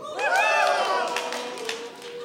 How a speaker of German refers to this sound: Habt ihr gehört? Jubel bis Buh. Das meine ich mit dem.